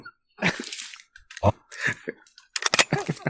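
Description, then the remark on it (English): Crackly crinkling of a lozenge wrapper being opened as quietly as possible, arriving in several short bursts separated by brief pauses, with sharp rustles building toward the end. “I was trying to very quietly open a lozenge so that I wouldn't be hacking and coughing.”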